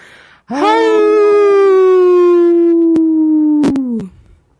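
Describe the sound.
A person imitates a wolf with one long, loud, sustained howl that holds a steady pitch for several seconds, sags slightly, then cuts off, with a couple of sharp clicks near the end.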